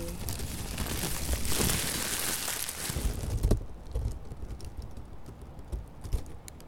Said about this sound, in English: So with with the tracing paper, I have instructions like um, poking the paper with a pencil. Mm. So poking the paper with a pencil and also crushing it and letting it crackle open slowly.